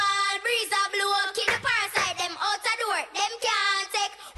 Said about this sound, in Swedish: Är ni inte nyfikna på att höra hur låten lät då?